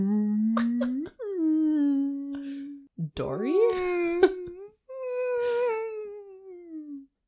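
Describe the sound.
A person makes several long, drawn-out humming moans, each voiced tone sliding and wavering in pitch, with brief pauses between them and no words spoken.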